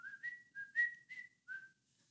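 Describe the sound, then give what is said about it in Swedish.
A person whistles a short, bright tune of about six clear notes, each held briefly with small gaps between them, fairly loud with no talking. “just för att det är en vissling.”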